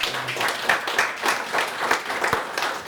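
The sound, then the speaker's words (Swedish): An audience applauds steadily, with dense overlapping claps forming a continuous wash of sound throughout, with no one speaking. “En applåd får du.”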